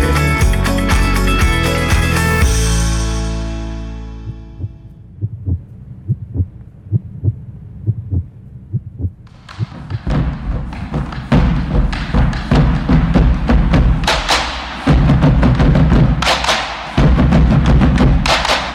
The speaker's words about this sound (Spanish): Si su corazón late de esta manera, no lo dude un segundo más y sintonice Universidad 100.7